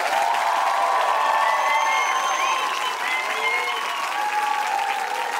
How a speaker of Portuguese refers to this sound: Por favor, o nosso melhor aplauso para Carlos Vereza e Josias Teófilo.